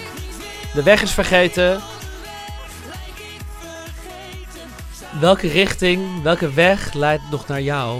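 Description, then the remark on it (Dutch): A pop song plays with a sung vocal melody over a steady, clear beat, two sustained vocal phrases separated by a quieter instrumental stretch, fairly loud. “Nou, je hoort het ze nu ook zingen.”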